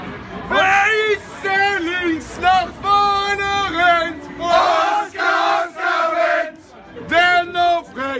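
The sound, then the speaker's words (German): A group of football fans from the Berlin fan club Block B chants a tribute song to Oscar Wendt in loud, rhythmic sung phrases, separated by brief pauses, with a raw, echoing crowd quality. “hier ist nämlich nochmal die kleine Ode für Oscar Wendt, die äh, ein Fanclub aus Berlin, nämlich Block B aus Berlin mal getextet haben.”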